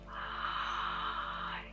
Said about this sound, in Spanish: tomar del aliento, respiración maya solar. Respiras profundo a través de la boca